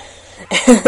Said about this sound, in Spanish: Dije, que qué suena así? Perdón, un gato.